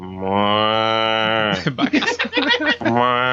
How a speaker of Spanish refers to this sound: y solo escuche sonidos de. sonidos de, vacas